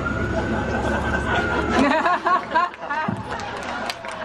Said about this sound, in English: and then with the noise of multiple trucks, the ambulance, the fire truck, and another ambulance on the way, Bob Newhart started to do the rest of his speech in sign language.